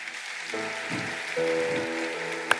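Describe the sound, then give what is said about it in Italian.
An audience applauds in a steady, dense wash of clapping, with sustained musical tones held underneath and a sharp crack near the end. “Dobbiamo fare un altro applauso.”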